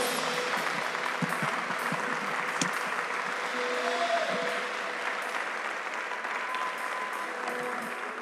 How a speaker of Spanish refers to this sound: Escucha lo que dice, si le vas a aplaudir, apláudele fuerte a Dios.